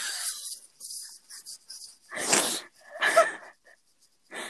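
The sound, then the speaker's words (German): A person imitates a glitchy sheep bleat: choppy, stuttering vocal bursts, then two louder, raspy bleats, with no talking. “Was bist du? Ein Schaf mit Kurzschluss?”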